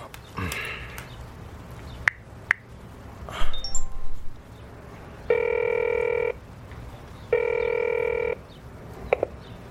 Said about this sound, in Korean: 아 그래 전화 전화를 해보지 뭐.